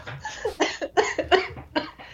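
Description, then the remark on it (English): A string of several harsh coughs from one person in quick succession, loud, forming a short coughing fit with uneven spacing between bursts. “Sorry, I made myself cough.”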